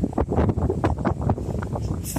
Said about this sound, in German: Wir sind hier in Innis Timend. Das ist ein County Clare. Es ist sehr windig. Wir sind in der Nähe eines Wasserfalls.